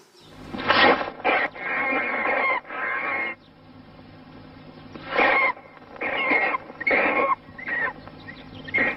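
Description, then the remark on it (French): A vervet monkey's jaguar alarm call: a series of harsh, raspy barks in short bursts, a quick cluster followed by a pause and another run, with a faint background hum. “La solution, c'est que le premier, c'était attention à l'aigle, le deuxième, c'était attention au jaguar.”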